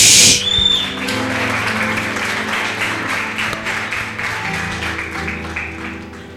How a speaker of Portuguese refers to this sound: Dá um salto da sua cadeira nessa noite, fica de pé, aplauda Jesus, bem forte.